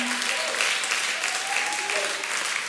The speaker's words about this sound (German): Können wir mal einen riesen Applaus geben?